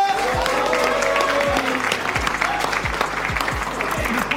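A crowd applauds and cheers loudly and continuously, dense clapping mixed with shouts, while low thumping beats pulse underneath at a steady rhythm.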